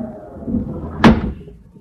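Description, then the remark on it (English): A window near a piano is shut on a windy night with a single sharp, solid thud about halfway through, ringing briefly before fading. A low, steady rumble sits underneath beforehand, and no one speaks. “Just close that window near the piano and you won't hear the wind.”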